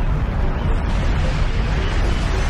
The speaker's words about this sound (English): no, this is actually a, uh, a volcano erupting uh, on the uh, island of Bali in uh, Indonesia, Mount Agung.